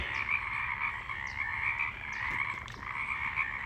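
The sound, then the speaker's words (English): A dense chorus of many frogs croaking at once, a continuous overlapping trill with scattered sharper calls rising above it, steady and fairly loud, with no voices. “The other night, there were two frogs. In the morning, there were eight. Now, listen to this. Gotta be a hundred.”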